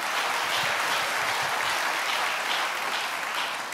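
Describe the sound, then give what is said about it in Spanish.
An audience breaks into steady applause when the speaker talks about businesses, a dense, continuous patter of many hands clapping at an even loudness throughout, with no voices rising above it. “Miren, miren esta parte, allí se aplaudieron, en el de las parejas nadie aplaudió.”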